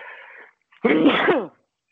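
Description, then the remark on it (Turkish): A single loud sneeze bursts out with a voiced, breathy blast lasting under a second, following a brief trailing sound and then silence. “Çok yaşa.”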